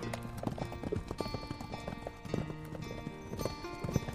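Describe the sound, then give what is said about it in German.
Horse hooves clip-clop in a steady rhythm on a hard surface, fairly loud, with a faint whinny and ambient background noise around them. “Ein cooler Mann mit Hut reitet auf seinem Pferd”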